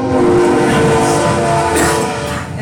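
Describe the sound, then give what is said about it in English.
A loud train rumbles past, a steady roar of wheels on rails with a sustained horn-like tone over it, fading slightly at the end. “Train Trek through.”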